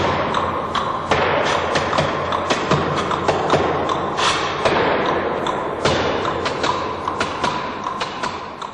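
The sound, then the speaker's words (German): Feet dancing and stomping on an aerated concrete (Ytong) block about 25 by 40 centimetres in a percussion performance, breaking it in the middle: a dense run of loud thuds and sharp cracks with crumbling, scraping grit between impacts, continuous with no talking. “Tanz, der so ein Schaben, ein Brechen des Steins, auch teilweise je nachdem, wo der Ütungsstein liegt, also wenn er auf einem hohlen Untergrund liegt, auch einen tiefen, bassigen Sound macht.”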